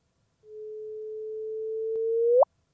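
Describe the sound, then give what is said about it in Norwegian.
A sonified gravitational-wave signal: a single pure tone holds steady for about two seconds, slowly swelling in loudness, then sweeps sharply upward in pitch in a brief chirp and cuts off. No voices accompany it. “Og vi skal høre på lyden av disse to gravitasjonsbølgene.”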